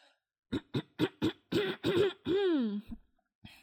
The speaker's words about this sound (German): Ich sag, ich sag doch, alles, was ich mache, ist mittlerweile melodisch. Also selbst mein Räuspern.